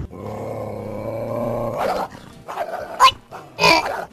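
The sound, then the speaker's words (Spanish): A dog growls in a long, rumbling snarl for about two seconds, then lets out several sharp, loud barks in quick succession, with no talking. “No, no, convéncelo, convéncelo, queremos este, ver al perro pleiterito.”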